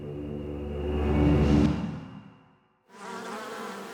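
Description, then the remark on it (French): A bee buzzes, its drone swelling louder as it passes, then fading away to a brief silence before the buzzing starts up again. No one speaks. “Lorsque tu vois une abeille sur une fleur, du pollen se colle à ses pattes et il est ensuite déposé sur la prochaine fleur que celle-ci va visiter.”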